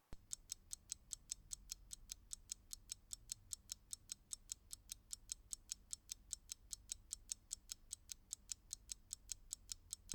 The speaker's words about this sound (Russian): Давайте сыграем с вами в небольшую игру. Я запускаю таймер на 10 секунд, а вы постараетесь за это время вспомнить имена трех самых известных серийных убийц среди женщин.